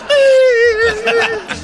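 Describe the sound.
A voice imitates a child's crying, a single sustained wail that starts high and slowly sinks in pitch with a wavering, sobbing quality, fairly loud, then breaks off into shorter whimpers.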